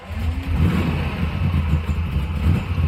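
A car engine revs and rumbles steadily as a woman drives the car away, a loud, low drone that holds for the whole few seconds with no voices.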